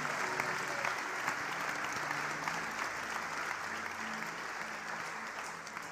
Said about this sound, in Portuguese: Dá um aplauso ao Senhor nesta noite.